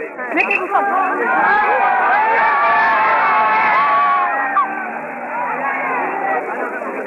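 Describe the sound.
A dense crowd of at least 2,000 people outside in Blois, France, murmurs and shouts in a steady, overlapping babble of many voices as a prison van drives away, with scattered jeers rising above the noise throughout, loud and continuous for the whole stretch.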